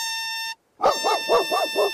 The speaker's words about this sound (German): Da steht ein Junge mit einer Tröte im Mund und hält einen kleinen Hund an der Leine. Laut bläst der Junge in seine Tröte, während ihn der Hund aufgeregt anbellt.